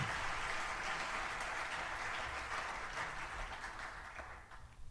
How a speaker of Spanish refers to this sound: Por favor, un fuerte aplauso directamente desde Madrid.